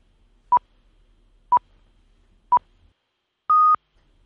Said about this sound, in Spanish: Bueno, estamos a punto de escuchar las señales horarias de las eh, nueve de la noche, las eh, ocho 8 en la comunidad eh, canaria. Aquí están, las escuchamos.